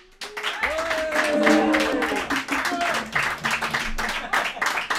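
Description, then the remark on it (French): A studio audience applauds guitarist Hugo Lippi steadily, dense clapping sustained for the whole clip, with a voice calling out over the claps early on. “Hugo Lippi à la guitare, on l'applaudit.”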